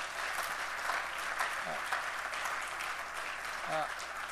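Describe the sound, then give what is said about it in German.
An audience applauds Jesus steadily, a dense, even wash of many hands clapping that holds at a constant level throughout, with a few brief voices calling out over it. “Lass uns Jesus einen Applaus dafür geben.”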